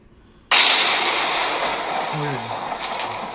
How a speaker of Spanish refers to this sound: Así que ya hoy terminaron, terminamos tronando las redes y no nos podemos ir hoy de aquí sin un trueno. Sí, Espérate, ¿dónde está? Deja ver el musicalizador este de aquí, que nos vamos con el trueno.